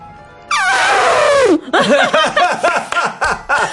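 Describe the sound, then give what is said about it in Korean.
A person with cheeks puffed full of air mimics an elephant's trumpet with one loud, brassy, strained blast that slides downward in pitch, followed by a run of short, choppy voiced bursts. “유리창을 깰 수 있을 만한 성량을 어. 가진 코끼리 성대모사를.”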